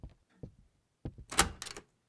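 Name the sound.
door being opened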